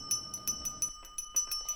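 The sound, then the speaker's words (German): A queen, standing up from her throne, taps a spoon repeatedly against a glass, about ten quick, bright clinks in an uneven rhythm, each with a high ringing tone that lingers briefly. “Die Kinder erblickten die Königin, wie sie auf ihrem Thron aufsteht und mit einem Löffel gegen ein Glas schlägt.”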